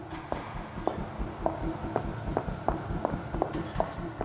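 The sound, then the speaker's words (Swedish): Roughly ten sharp footsteps of a woman walking, coming closer together as they go, the pace clearly quickening, heard over a steady low rumbling background with no talking. “Stegen kom tätare än vanligt, som att hon gick mycket snabbare.”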